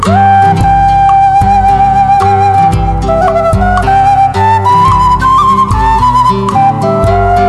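An instrumental Cuban folk song in a lilting habanera rhythm: steady low bass pulses beneath a smooth, sustained melody line, played loud and close with no voices.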